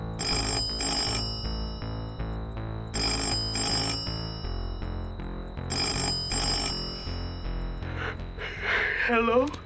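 A telephone rings three times on an outgoing call made close to midnight, in evenly spaced bursts, clear and fairly loud over a steady low tonal backdrop, followed by a brief breathy vocal sound at the end.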